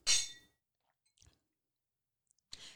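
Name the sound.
wine glasses clinking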